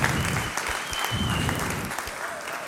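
An audience claps steadily for a few seconds, a dense, continuous patter of many hands at moderate loudness with no pauses.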